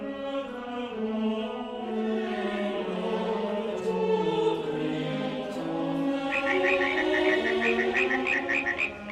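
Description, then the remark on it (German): A dense chorus of many frogs croaking together, loud and continuous, with a rapid, rhythmic trill of higher croaks joining in toward the end. No voices. “Aber Tausende von Fröschen, die nicht nur auf dem Boden, sondern auch in den königlichen Gemächern herumhopsen.”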